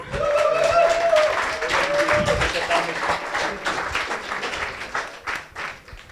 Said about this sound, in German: Genau, Jubel, danke.